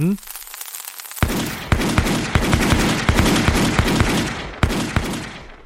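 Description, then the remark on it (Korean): A hwacha volley: after a brief quiet moment while the lit fuse burns, its 40 seungja chongtong gun barrels fire in turn, sharp gun blasts erupting in rapid, uneven succession over a continuous roaring hiss, with a few louder cracks standing out before it tapers off. “마흔 개의 총구가 차례로 연달아 불을 뿜게 된다.”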